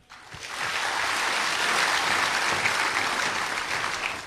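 An audience breaks into sustained applause, a dense, even wash of many hands clapping that holds steady at full strength for several seconds with no talking over it.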